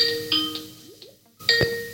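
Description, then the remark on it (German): A Skype call ringtone plays a short melodic pattern of bright chiming tones with sustained pitches and a couple of quick rising notes, moderately loud and with no voices. “warte, ich rufe dich nochmal an in Skype. Ist doch kein Thema, nicht. bei dir klingelt's.”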